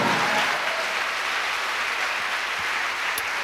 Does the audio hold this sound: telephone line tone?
no